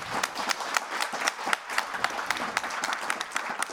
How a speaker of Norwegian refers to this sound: Ja, det fortjener en applaus.